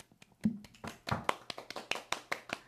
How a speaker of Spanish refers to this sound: Oficialmente ya cumplí cuatro meses con mi novia. un aplauso.